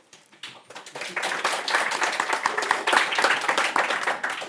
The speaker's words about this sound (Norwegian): Det blir litt applaus på slutten her også.